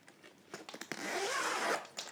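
A zipper is pulled open on an instrument case: a few short rasping clicks, then a long, steady, fairly loud zip that trails off. No one speaks.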